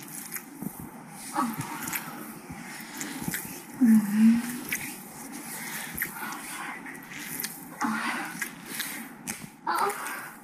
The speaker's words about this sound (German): sieht man die Leute aber auch komplett und man hört auch mal so ein leiseres oder lauteres Stöhnen.